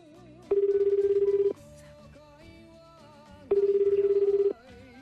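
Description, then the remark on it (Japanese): Two ringback tones on an unannounced outgoing phone call on New Year's Eve to the grand prize winner of an adult band award, each a steady buzzing tone about a second long, separated by a pause of about two seconds, with faint background music underneath. “えー、グランプリ受賞者に、えー、アポなしで電話をしてみたいと思います今からですよ今からですよお忙しいでしょ大晦日やから酒飲んでるんちゃいます昼間から もうねはいそうですかはいでは電話かけてみましょ”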